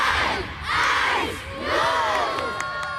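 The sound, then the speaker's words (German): A large crowd of schoolchildren shouts a launch countdown from ten to zero in unison during a school break, with the whole school and family members present, for the launch of two balloons. The loud chanted calls rise in two strong swells with a bright, excited ring, trailing off into scattered cheering. “Die ganze Schule und viele Familienmitglieder sind dabei. Gewesen. Und wie bei der NASA hat es natürlich auch einen Countdown gegeben.”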